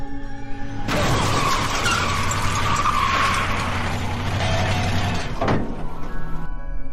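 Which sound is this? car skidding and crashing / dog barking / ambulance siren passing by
car skidding and crashing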